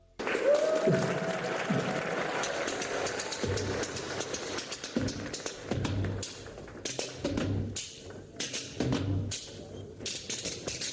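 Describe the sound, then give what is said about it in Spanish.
A lively Israeli rumba rhythm clacked out on spoons used like castanets, with quick, bright, irregular clicks running steadily throughout at a fairly loud level. “Esta especie de rumba delirante con cucharas.”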